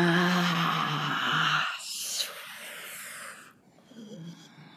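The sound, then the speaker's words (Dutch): A drawn-out vocal groan with harmonic tone fades into a long, forceful breathy exhale, followed by softer breaths and a faint hum, fairly loud, made as part of a breathing and movement exercise. “als je die bewegingen maakt, deze ademhaling maakt, deze geluiden maakt, dan op een bepaald moment kan je even tot stilstand komen.”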